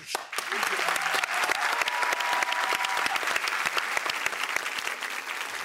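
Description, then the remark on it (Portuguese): Steady applause from a group on a talk show with deaf guests, dense overlapping claps sustained evenly for several seconds at a fairly loud level, with no voices standing out. “São surdas, mas ouvem aplausos!”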